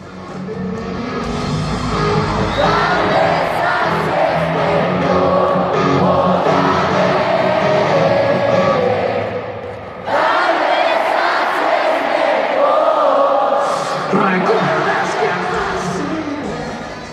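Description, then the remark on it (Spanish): A huge concert crowd sings along loudly in unison, a dense roaring wall of voices with a melodic swell that reverberates, briefly dipping around the midpoint before surging back just as loud. “Y justo una parte donde nosotros estamos cantando y no, no inventes, o sea, retumba, se escucha súper padre, de verdad, súper genial.”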